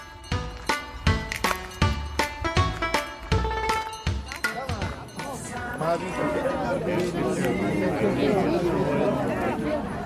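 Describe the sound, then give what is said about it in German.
Busy crowd chatter at the outdoor Lindau harbour Christmas market (Lindauer Hafenweihnacht), a dense murmur of many voices. It begins with a run of sharp, rhythmic clacking hits before the steady babble takes over. “Heute begleitet ihr mich auf die Lindauer Hafenweihnacht.”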